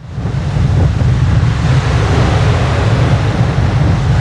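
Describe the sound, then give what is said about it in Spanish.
Steady wind blows across the microphone over a soft, continuous wash of calm sea, a loud, unbroken rumble with no voices, recorded from the balcony of a cruise ship cabin as the ship sails after leaving its last port of call. “Tengo que decirles que hace algo de viento, pero en realidad el mar está en calma.”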